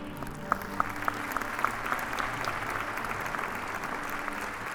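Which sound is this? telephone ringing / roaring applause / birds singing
roaring applause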